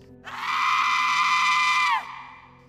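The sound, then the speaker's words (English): A woman's high-pitched scream echoes out of the woods once, loud and sustained for nearly two seconds before dropping in pitch and cutting off, with a faint lingering tail and no talking. “But then came a female voice screaming, echoing right out of the woods.”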